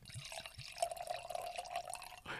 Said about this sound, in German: Und feiert dieses Geräusch beim Einschenken.